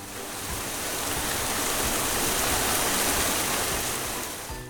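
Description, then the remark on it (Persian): A dense, steady roar of very heavy storm rain fills the scene, loud and continuous with a broad hissing wash and no voices, swelling in briefly at the start and tapering at the end. “سومین بارون توفانه خیلی شدید میاد”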